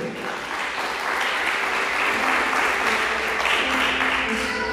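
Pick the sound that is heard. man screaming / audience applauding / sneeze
audience applauding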